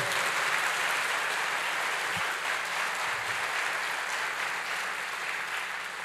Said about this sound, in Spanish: Eso merece un fuerte aplauso al Rey de Reyes.